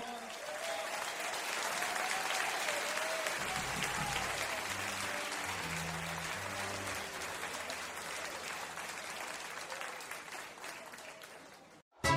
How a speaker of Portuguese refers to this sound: Vamos a llamar a otro invitado, ¿eh? un gran amigo, un gran pianista, un gran artista. Fuerte el aplauso para …, por favor.